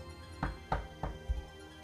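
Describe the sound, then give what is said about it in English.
Four steady knocks on a door, evenly spaced and fairly soft, with the last one duller and lower. No voices, just quiet between the raps. “These eight Pokemon turn when they hear a knock.”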